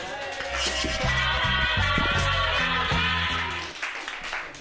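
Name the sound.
audience applause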